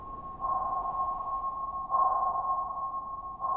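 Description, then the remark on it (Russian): A sonar ping, from an instrument that detects objects in water with sound waves, repeats about every second and a half, each bright electronic tone swelling over a steady, continuous hum. Three pings sound clearly, with no talking. “Это такие инструменты, которые при помощи радиоволн и звуковых волн могут обнаруживать объекты, Радары обнаруживают в воздухе, а сонары — в воде.”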